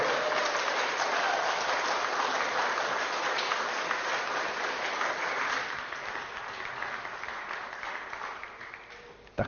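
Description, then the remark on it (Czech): An audience applauds steadily throughout for the musicians and singers near the end of a church service, a dense wash of many hands clapping that holds strong before gradually tapering off toward the end. “A já bych chtěl, jsme vám zatleskali, jestli můžu poprosit, jak se vám to líbilo.”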